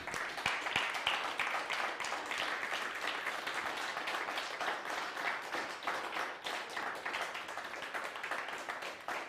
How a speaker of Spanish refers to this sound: Bueno, pues ahora sí un fuerte aplauso, por favor, nuevamente.